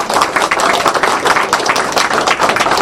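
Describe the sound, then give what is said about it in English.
Loud, dense applause from a large audience at a BBS community event, cheering the event organizers, a steady wash of many hands clapping at once that fills the whole stretch without pause, with no voices standing out. “So I'm going to just go, go around and tell you who these folks are, and then you can scream the applause they deserve.”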